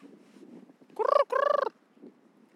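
Two rolling, trumpeting calls from a group of cranes hovering in the air directly overhead, in quick succession, each with a rapid rattling pulse, ringing out clearly over a quiet outdoor background.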